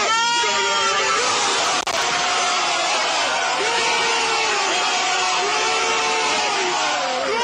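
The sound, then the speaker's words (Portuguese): The Spanish team yells loudly and continuously, celebrating the goal of the final after Iniesta's shot. Raw overlapping shouts are sustained through the whole stretch, intense, with a brief knock partway through. “Todos gritaram o gol da final.”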